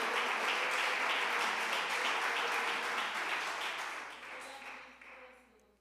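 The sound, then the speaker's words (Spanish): Sustained applause from an audience clapping for the Lord, a dense wash of many hands clapping at steady volume that gradually thins and fades out over the final seconds. “Dele un aplauso al Señor porque Él le ha ayudado, porque Él le ha bendecido, porque Él ha estado con nosotros, bendito su nombre.”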